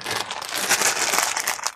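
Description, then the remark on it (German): A plastic candy bag rustles and crinkles continuously, a bright, crackly texture with small irregular bursts, fairly steady in loudness, with no one talking. “Ihr hört gerade nur Rascheln da das draußen.”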